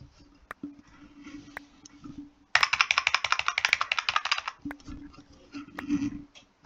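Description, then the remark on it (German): A burst of rapid typing on a computer keyboard, crisp clicking keystrokes for about two seconds, framed by quieter background sound and scattered isolated clicks before and after. “Meine Tastatur schmatzt so schön, gell?”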